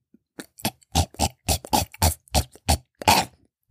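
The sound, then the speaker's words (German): A person imitates a fit of coughing and retching, like a cat hacking up a hairball, with about ten harsh, throaty bursts in quick, uneven succession, fairly loud. “Das klingt wie meine Katzen, wenn sie gerade einen Haarballen hochwürgen.”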